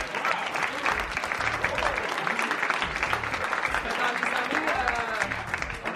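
Steady, dense audience applause fills the whole stretch, many hands clapping at once in a loud, continuous wash with no pauses.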